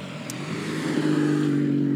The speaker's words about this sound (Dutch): Ja, ja, dat heb je hier ook veel, hè, motorrijders. Eh, dat, eh, dat gaat de hele dag door hier. Dus je kan hier eh, op dat nieuwe asfalt heel, heel goed toe.